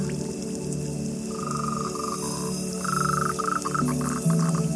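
Small frogs croak in a series of short, pulsing calls at a mid pitch, coming in bursts over a steady low background wash, with no one talking.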